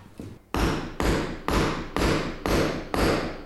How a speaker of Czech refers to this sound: Tak jsem kladívko a právě bouchej jsem a když si k tomu stoupneš, tak ti úplně lépe.